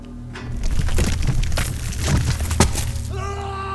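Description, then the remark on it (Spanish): A fragile wall is smashed and crumbles apart, with a dense burst of cracking and crunching debris lasting a few seconds, loud, ending as a low hum takes over. “Rompiste un pedazo, las hice frágiles para que te sintieras fuerte.”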